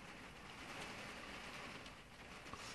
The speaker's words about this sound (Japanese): すげえ雨降ってきた。雨音入っちゃうかもしれない。